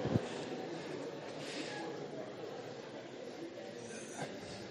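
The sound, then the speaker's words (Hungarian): An audience in a hall talks at once in a steady, dense murmur of overlapping greetings and chatter as people turn to their neighbours, some shaking hands, and wish each other a happy Pentecost. No single voice stands out, and the level holds fairly even throughout. “Valaki nagyon belejött, már az ötödik embernek kíván boldog pünkösdöt.”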